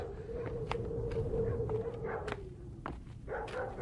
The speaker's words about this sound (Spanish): Pero sí, hay algo, hay un pueblo. Se oye que ladran los perros y se siente en el aire el olor del humo y se saborea ese olor de gente como si fuera una esperanza.